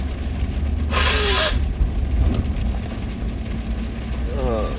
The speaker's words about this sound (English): Sorry, I have to blow my nose a little bit.